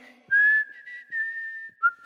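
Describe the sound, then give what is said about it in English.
A person whistles while tidying up: a sustained, steady tone that holds nearly level, briefly dips in pitch near the end, then cuts off; clear, with no talking. “I like to whistle while I tidy.”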